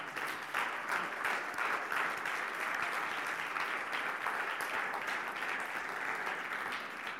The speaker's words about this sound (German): Wir wollen einfach ein ganz großes Danke an euch sagen. Wir wollen sagen, wir, wir ehren euch, wir lieben euch und wir schätzen das, was ihr für das Evangelium auf euch genommen habt. Und ich glaube, auch das ist ein ganz großer Applaus wert.